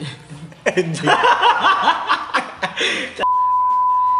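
Chuckling laughter abruptly gives way to a loud, steady censor bleep, a single pure tone that holds for about a second until the end.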